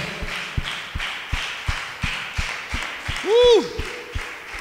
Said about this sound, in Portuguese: Aplauda com força a Jesus, o Senhor.